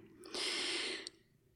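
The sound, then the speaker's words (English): One heavy, breathy exhale from a person who has just run up the stairs, an airy rush lasting under a second with faint mouth clicks at either end, then quiet. No talking. “Um, I just ran up the stairs and I feel like I should not be breathing heavy.”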